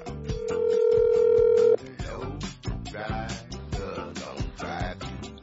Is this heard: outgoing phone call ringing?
yes